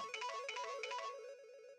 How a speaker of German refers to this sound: Das Telefon klingelt.